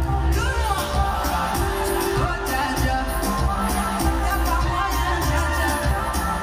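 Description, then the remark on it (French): A large concert crowd at the Accor Arena in Paris on 7 July 2022 roars and screams continuously as a singer performs her signature song, with cheering and whoops rising over dense, loud background music and a steady wash of audience noise. “qui occupe l'espace, qui fait hurler le public.”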